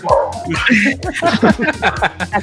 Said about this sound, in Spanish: Uh, ahí está ladrando. Ah, es acá fuera de mi casa, qué pedo.